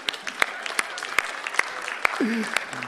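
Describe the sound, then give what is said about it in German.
An audience applauds steadily, a dense wash of clapping with sharper individual claps standing out. A brief voice sounds faintly beneath it near the end. “Gebt diesen Rückwand Applaus.”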